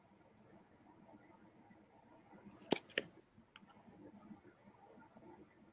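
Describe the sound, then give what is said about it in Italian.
Playing cards being handled as a card is chosen from a deck: a few crisp snaps and flicks in a quick cluster, followed by softer rustling over a quiet background. “Scegliamo una bella carta. Sì. Allora, queste sono le carte, come vedete.”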